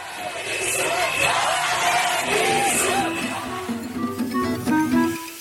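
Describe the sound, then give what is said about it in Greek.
A large crowd of protesting health workers shouts and chants together, a dense, sustained roar of raised voices with individual yells rising above it, loud and continuous throughout. “συγγνώμη είχα κλείσει το στόμα μου και οι φωνές των υγειονομικών το ανοίξαν πάλι”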